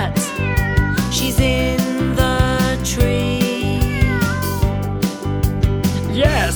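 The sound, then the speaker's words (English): A cat meows repeatedly, with rising and falling cries recurring every second or two over a steady, upbeat musical backing with a rhythmic beat, fairly loud throughout. “Waiter, waiter, can you help me, please? It's my cat.”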